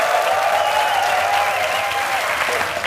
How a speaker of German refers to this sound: Damit die Weihnachtsfeier auch dieses Jahr wieder zum unvergesslichen Erlebnis wird, hier die ultimativen Tipps vom Weihnachtsfeier-Experten Heinz Strunk. Applaus